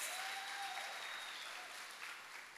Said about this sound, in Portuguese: Se você acredita nisso, aplauda Ele aí e glorifique a Deus.